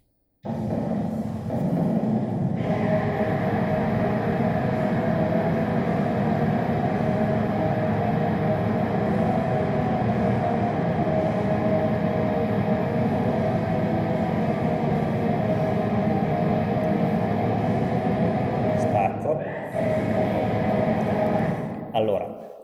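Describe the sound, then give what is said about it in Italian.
A dense, roaring wall of distorted black metal plays steadily at a modest volume, a relentless blur of guitars and drums that drops out briefly near the end before surging back. “Mettendo insieme tutto questo otteniamo un tipico pezzo black metal associato al canone, che ora vi faccio sentire piano perché ci sono i bambini sopra.”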